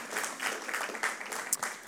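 An audience at a talk applauds a helper called up to assist with a glue demonstration, a dense wash of many hands clapping at once with brief sharper claps poking out, sustained at moderate loudness throughout without a clear voice over it.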